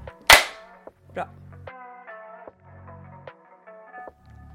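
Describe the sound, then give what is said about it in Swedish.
After a spoken count, people clap their hands at the same time: a single loud, sharp clap rings out, followed a moment later by a softer one, then sustained tonal sounds with no talking. “Fast vi ska klappa samtidigt.”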